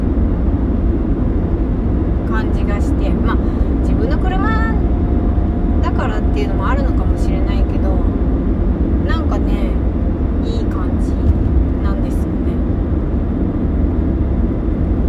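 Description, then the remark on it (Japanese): A constant, loud low rumble of car and road traffic noise fills the whole recording, with a person talking intermittently over the droning engine and tire sound. “そうでも聞いてる人は車の走ってる音とかさ例えば救急車が来たりしたら救急車の音とかも聞こえちゃうんだけどそうなんかねこの感じがね私は取りやすいんですよね”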